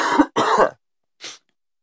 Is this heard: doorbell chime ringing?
no